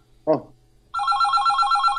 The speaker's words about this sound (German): Jetzt läutet es bei mir an. Jetzt, äh, der Conny läutet mir an.